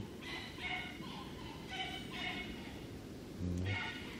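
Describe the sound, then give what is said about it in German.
Several dogs bark and yip in short, high-pitched bursts, coming in an irregular series over a steady, noisy background. “Was machen die Hunde denn da?”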